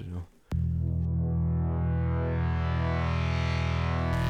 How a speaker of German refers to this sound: Aber machen wir mal erstmal den Jingle.